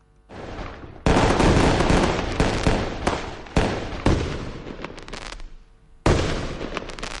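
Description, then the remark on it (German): Fireworks explode over Lake Zurich in Zurich, Switzerland, at a New Year's Eve party, in a loud, rolling barrage, with repeated sharp bursts at irregular intervals over a continuous rumble and crackle. No one speaks. “Das Feuerwerk über dem Zürichsee gehört an der grössten Schweizer Silvesterparty mit dazu.”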